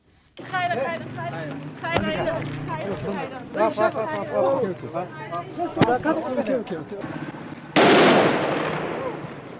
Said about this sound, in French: Alors, on entend des femmes afghanes qui militent dans les rues de Kaboul. Et à la fin, on entend des coups de feu qui sont euh, envoyés par les talibans